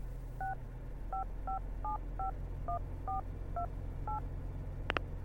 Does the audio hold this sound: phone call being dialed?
yes